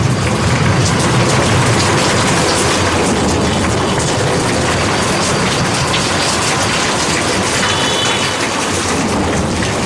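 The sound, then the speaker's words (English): Heavy monsoon rain in India pours down in a loud, unbroken roar, a dense hiss of countless drops with a low rumbling undertone that holds steady throughout, with no voices. “The monsoon season lasts through September, flooding India's rivers with some of the heaviest rainfall in the world.”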